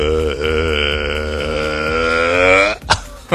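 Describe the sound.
A voice imitates a burp being held back while the stomach is inflated with air during a medical examination: a long, strained, guttural croak held for nearly three seconds, ending in a couple of short sharp bursts. It's loud, with no talking.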